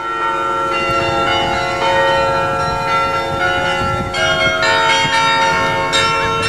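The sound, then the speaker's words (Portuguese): Church carillon bells ring out loudly and continuously, many tuned bells overlapping in a rich, sustained chime with fresh strikes every second or so and no voices. “Muitas igrejas antigas, na Europa e na Ásia, ainda possuem carrilhões com sons incríveis, e você encontrará vários vídeos na internet com carrilhonistas tocando canções famosas usando tais carrilhões.”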